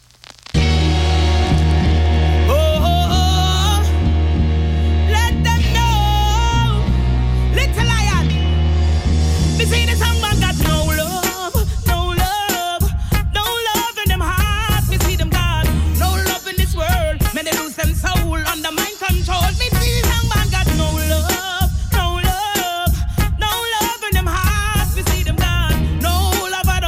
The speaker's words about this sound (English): So get ready with me and let's enjoy, enjoy first some music.